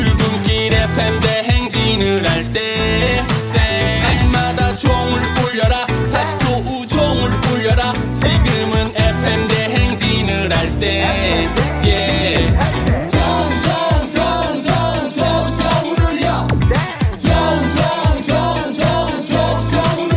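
A pop song plays continuously at full, steady volume, with a driving beat, layered instruments and a melodic vocal line, broadcast as though over the radio.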